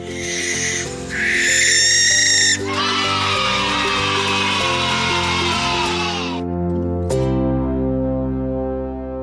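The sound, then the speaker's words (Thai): A barn owl, a light brown nocturnal bird with a white heart-shaped face, gives a few short raspy shrieks, then one long, harsh hissing screech lasting several seconds, loud over steady background music. A sharp click follows as the music continues. “นกแสกเป็นนกเขาชนิดหนึ่งที่มีตัวสีน้ำตาลอ่อน มีใบหน้าขาวเป็นรูปหัวใจ มีตาโต คอสั้น ปีกยาว หางสั้น มีนิ้วตีนและกรงเล็บที่ยาวค่ะและที่สำคัญเป็นนกกลางคืนที่ใกล้ชิดกับมนุษย์มากที่สุดค่ะ”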